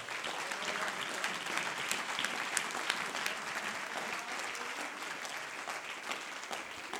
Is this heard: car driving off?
no